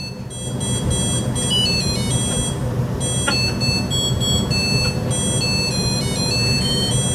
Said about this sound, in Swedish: Är det barnens leksaker? Nej, diskmaskinen. Va? Din? Det tar aldrig slut. Varför låter den så här? För att den är klar!